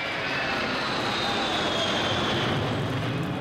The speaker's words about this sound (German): Augenblicke später fliegt der Prototyp der 707 in nur 300 Metern Höhe über dem Wasser vorbei.